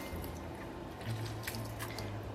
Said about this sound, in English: And I'm just going to squeeze in the juice of half a lemon.